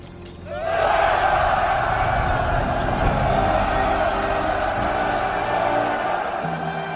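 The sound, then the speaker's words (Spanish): A large crowd of soldiers of the Fifth bursts into loud, sustained euphoric shouting and cheering, throwing down their weapons and shouting "Viva el emperador!" again and again, many voices roaring together and continuing without pause to the end. “Eso que acabáis de oír son gritos de euforia.”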